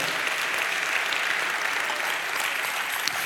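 An audience applauds God steadily, a dense, even wash of many hands clapping at once that holds at a constant level throughout, with no voices standing out.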